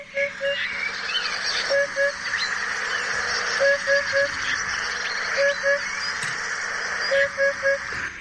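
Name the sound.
eurasian hoopoe call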